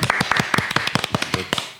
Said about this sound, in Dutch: Mag ik nu een hartelijk applaus? Maar doen klappen.